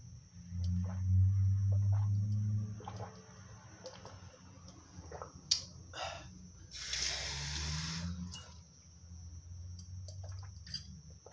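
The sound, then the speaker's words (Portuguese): Water runs from a sink tap as someone gets a drink of water, a steady hiss that swells to a louder gush midway, with a low rumble and a few faint clinks around it and no one speaking. “Porque eu sou amador e não deixei uma garrafa do meu lado, então eu vou ter que sair e ir até a pia.”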